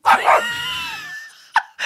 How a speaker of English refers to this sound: Now, you heard that little dog bark there. Let's just say I didn't make the dog bark.